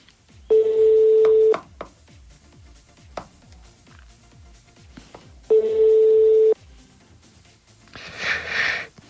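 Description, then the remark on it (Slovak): A phone call to a radio listener rings twice with long, steady electronic tones separated by a pause, and nobody picks up; faint clicks and a brief noisy burst follow at the end. “Tak čo, čo som ti hovoril, ľudia sa už boja dvíjať telefóny.”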